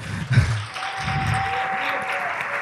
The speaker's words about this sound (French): Alors, je pense qu'on entendra les applaudissements. Oui, euh, il y a beaucoup de monde, hein, c'est impressionnant.